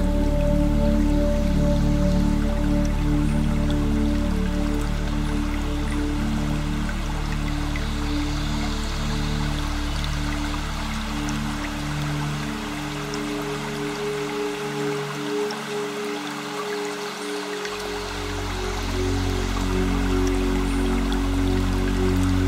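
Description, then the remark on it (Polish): A small stream warmed by sunshine flows gently and steadily, its soft continuous rush and fine trickling patter filling the background with no voices, briefly thinning in the low range before resuming. “szum małego strumienia ogrzewanego promieniami słońca.”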